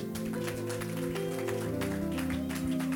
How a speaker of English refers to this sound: Some of you are tired of clapping.